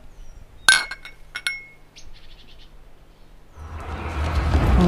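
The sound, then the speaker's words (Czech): Glasses of wine and beer clink together in a toast at a picnic, two bright ringing taps with a short shimmering tail, followed by a rising, rushing hiss toward the end. “No tak já si dám víno, co ty? Já mám dneska pivečko zrovna.”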